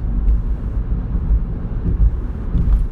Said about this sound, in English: Well, there's a tractor trailer and a ton of construction going on, so I better hop off my phone